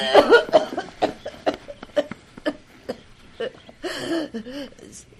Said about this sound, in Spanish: Mejor que ya no hable, madrina, porque le viene la tos más fuerte.